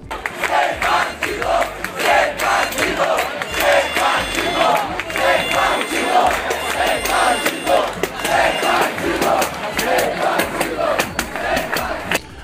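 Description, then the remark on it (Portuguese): A large crowd at a 2013 protest in Brazil chants the slogan "sem partido" over and over in a steady rhythmic cadence, loud and dense with many voices shouting together, sustained throughout. “Como vocês vão ouvir a seguir, os gritos de sem partido eram comuns naquele período.”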